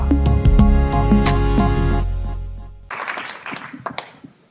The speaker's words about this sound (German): Ähm, ja, danke auch für dieses Geräusch. Äh, Applaus mag ich sehr, sehr gerne.